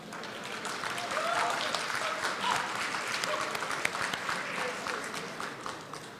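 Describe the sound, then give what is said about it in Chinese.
Sustained audience applause welcoming the entrance of chairman Jack Ma (Ma Yun), a dense steady wash of many hands clapping at moderate loudness for the full six seconds, with faint crowd murmur mixed in. “哎，请我们用热烈的掌声欢迎马云主席这个入场，谢谢。”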